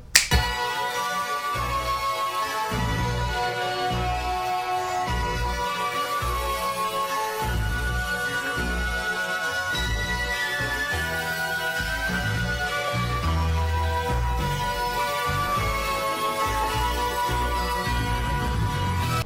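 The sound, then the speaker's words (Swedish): A heavy, dense end-credits song from a film plays continuously at a steady, loud level, with thick low-end rhythm and layered sustained tones throughout, and no one talking over it. “Men det som räddar det är att det kommer världens tyngsta eftertextlåt sen.”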